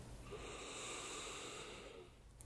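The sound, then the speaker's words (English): A single long, deep breath drawn in, airy and steady for about two seconds before tapering off, with no talking, taken while tapping the middle finger during a tapping exercise. “Tap the middle finger, big deep breath.”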